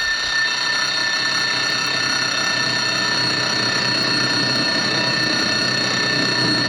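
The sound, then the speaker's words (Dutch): A shrill alarm clock bell rings without pause, a dense metallic clatter that stays loud for the whole stretch before cutting off right at the end. “Bij het gerinkel schoot Billy overeind en begon met zijn ogen stijf dicht in het donker rond te tasten.”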